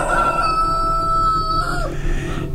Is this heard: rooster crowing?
yes